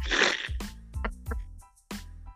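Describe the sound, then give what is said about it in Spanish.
A sharp, noisy nasal snort bursts out, followed by several short voiced laughing bursts in an uneven rhythm. “Un chancho se te sí, salió.”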